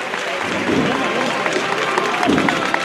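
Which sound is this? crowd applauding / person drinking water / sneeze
crowd applauding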